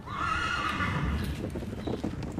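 A racehorse gives a loud, wavering whinny while hooves clip-clop steadily beneath it, the neigh fading after about a second as the hoofbeats carry on.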